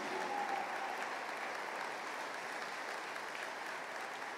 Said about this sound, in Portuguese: Pode aplaudir o Senhor.